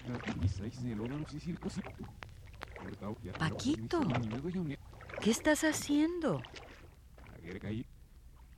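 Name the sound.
water splashing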